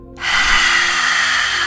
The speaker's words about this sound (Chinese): 第五次深深的吸气，吐气时会像狮子一样，不断的展现出力量。